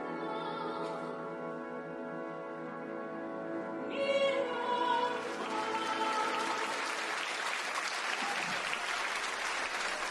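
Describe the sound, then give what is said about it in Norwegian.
A sustained, tonal voice rings out at first, then a large audience breaks into loud, dense applause for a 14-year-old singer as he comes out on stage, swelling and continuing steadily to the end. “Denne applausen er han vant til.”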